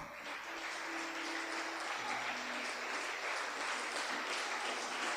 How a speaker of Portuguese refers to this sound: Pode aplaudir o Senhor.